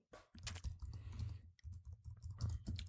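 Rapid, uneven clacking of keys on a computer keyboard, fairly loud, with short pauses between bursts of typing and no voices.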